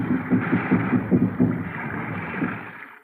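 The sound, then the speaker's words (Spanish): Muffled drums beat in a steady, repeating rhythm far off, heard from a ship in fog, their low thumps half-buried under a constant wash of breaking surf and wind, fading toward the end. “Parecen tambores.”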